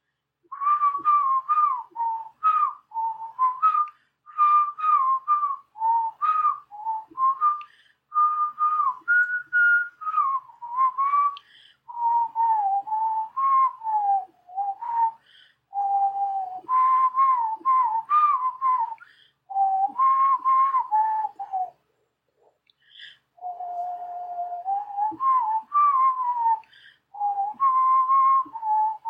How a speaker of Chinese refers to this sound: 那我已经不知道我要吹什么口哨了。